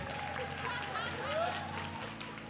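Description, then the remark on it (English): Women of a church's women's ministry clap in a steady, dense patter, with voices and murmuring mixed through the applause for a couple of seconds. “Gentlemen, you hear how the ladies clap for their thing?”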